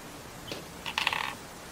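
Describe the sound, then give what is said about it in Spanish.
Small dice rolled for a dexterity check clatter on a hard surface: a light tap, then a quick rattling burst of several bright clicks that settles within a fraction of a second. Fairly quiet, with no voices. “Ay, qué buenos dados.”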